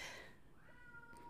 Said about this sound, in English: And that's my cat you hear meowing in the background, and I have to go support him. He doesn't sound happy.